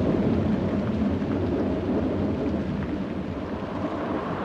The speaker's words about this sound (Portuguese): A tempestade durou exatamente é, eh, 40 dias e 40 noites, ou uh, eh, 57.600 minutos, ou 960 horas, uh, como seja. Uh, parecia que nunca ia terminar. Mas um dia. Os relâmpagos e trovões pararam.